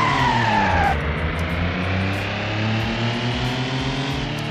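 A racing car in a video racing game brakes hard for a hairpin curve with tires skidding and squealing for about a second, then the engine keeps droning loudly with steady low harmonics, continuous, no talking.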